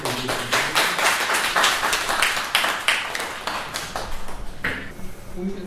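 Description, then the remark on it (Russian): An audience applauds steadily for several seconds, a dense, even patter of many hands clapping, with faint voices surfacing near the end. “И все-таки поаплодируем.”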